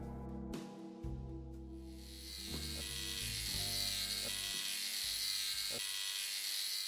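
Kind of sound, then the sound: tool, tattoo machine buzzing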